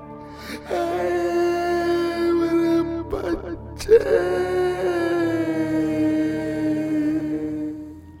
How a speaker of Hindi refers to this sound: जैसे ही बर्तनों की आवाज शांत हुई राजू को किसी के सिसकने की आवाज सुनाई दी